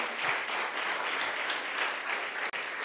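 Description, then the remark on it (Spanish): A crowd applauds the Lord steadily, a dense wash of many hands clapping at once, loud and sustained throughout with only a momentary dip near the end. “dele un fuerte aplauso al Señor.”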